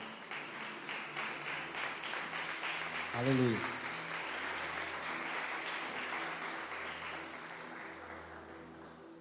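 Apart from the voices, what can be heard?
audience clapping and applauding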